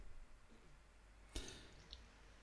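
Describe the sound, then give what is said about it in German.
A single sharp click from a computer mouse, followed by a fainter second click about half a second later, both quiet against a low background hum with no speech, as someone clicks a wrestler's name on the Cage Match website and goes to Matches. “Klicke bei Cage Match auf ihren Namen und gehe auf Matches.”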